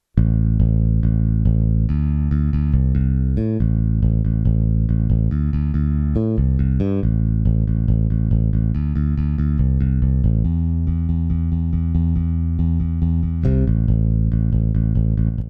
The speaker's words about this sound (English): Ample Bass P-Lite 2 aims to bring the sound of the Fender Precision Bass to your home studio.